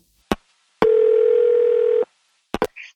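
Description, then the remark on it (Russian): A single steady, buzzy ringback tone sounds for just over a second on a phone line as a call is placed, framed by sharp clicks before and after, clear with no one talking. “Давай звони.”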